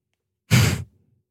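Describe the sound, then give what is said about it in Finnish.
A single short, forceful huff of breath, imitating the annoyed huffing of a stranger in a public place, pushed out sharply and lasting about a third of a second before trailing off into quiet. “Tämä on vieraan ihmisen tuhahtelun ääni julkisella paikalla.”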